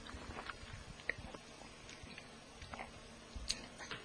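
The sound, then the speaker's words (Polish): Someone takes quiet sips of yerba mate, with soft slurping and a few small sharp clicks scattered over about four seconds, and no one speaking. “Choć, że łyknę sobie dla podtrzymania efektu.”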